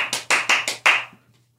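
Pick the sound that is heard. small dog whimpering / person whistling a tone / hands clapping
hands clapping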